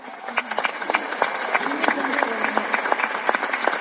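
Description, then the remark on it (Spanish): An audience claps steadily for several seconds, a dense wash of many hands with sharp individual claps popping through, evenly sustained without any talking. “Démosle un aplauso a Cristóbal Messi.”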